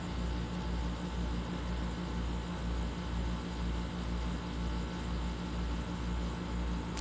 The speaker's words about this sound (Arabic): عاد تحملوا هذا مكيفي